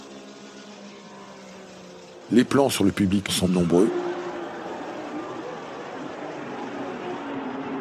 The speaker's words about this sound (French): L'ambiance sonore vient des moteurs Porsche et Ferrari